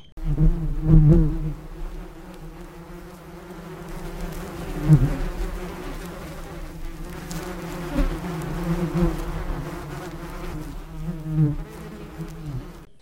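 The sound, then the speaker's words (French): A steady swarm of bees buzzing continuously, the droning hum swelling and fading slightly in loudness, with no voices present. “Mais qu'est-ce que ça veut dire bise Ça veut dire abeille en anglais.”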